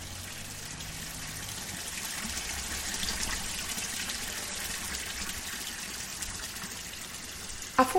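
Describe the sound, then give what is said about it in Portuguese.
Mineral water flows steadily from a natural spring, the fonte do Caranã in Salinas, a continuous, even rush with a bright hiss, moderately loud, with a brief splash or knock near the very end. “Para mim, que nasci em 1977, o lugar sempre foi referência de onde se apanha água mineral livremente para servir a casa.”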